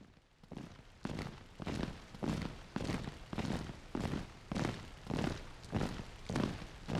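Heavy footsteps of agents walking step by step toward a dark plateau on Jupiter, at a slow, steady pace, about ten dull, thudding steps with broad crunchy texture, each one evenly spaced and fairly loud, with no voices.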